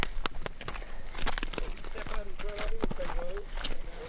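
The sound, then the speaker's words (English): Burro hooves clatter in a busy, irregular patter of sharp clops as several burros, including one named Roscoe, walk amid dogs in a chaotic tangle, with people's voices talking over the middle of the stretch. “The beginning is a tangle of dogs and burros it's a little chaotic, and I'm really glad I'm negotiating it alone.”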